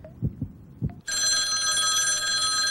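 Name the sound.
telephone ringing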